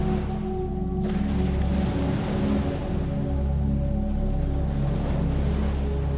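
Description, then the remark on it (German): Gentle ocean waves wash steadily onto a sandy shore at night under a full moon, in a continuous soft hiss, with a low sustained tonal drone humming underneath; no one speaks. “Das Wasser umspült sanft deine Füße.”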